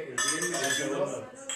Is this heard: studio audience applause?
no